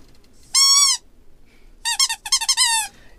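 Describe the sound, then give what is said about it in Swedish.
A squeaky shark-shaped toy horn is blown: one sustained, reedy honk, a brief pause, then a quick run of shorter honks ending in a longer one, loud and alone with no talking. “Äh, ska vi blåsa i den här, våran favoritinstrument, spoilerhajen?”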